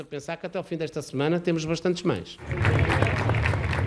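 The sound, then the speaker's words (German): A voice speaks for a couple of seconds, then a loud, dense burst of applause in Portugal for their own country during the coronavirus pandemic takes over, steady many-handed clapping that continues to the end. “Beifall für das eigene Land.”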